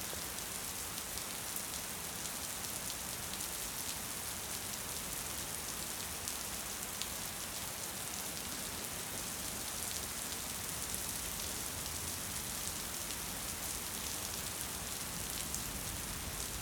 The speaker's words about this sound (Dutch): En dan tot het wolkje heel langzaamaan met regenen. De laatste druppeltjes vallen nog op je hoofd. Die gaan nog naar beneden.